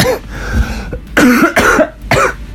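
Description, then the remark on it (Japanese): A man who has had a bad cough lately coughs several times in quick succession, three harsh bursts with short breathy pauses between them, and no speech. “こんな感じですね、あの、最近、咳がすごくて、で、この咳の原因の一つでたま煙もきっとあんだろうなっていうのもちょっとあったり”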